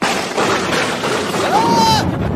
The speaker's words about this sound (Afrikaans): Jammer mos, eh, die donder weer was regtig hard.